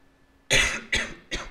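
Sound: coughing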